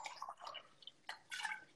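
Water is poured into a glass to drink, a few short splashing, trickling bursts with brief pauses between them, and no voices.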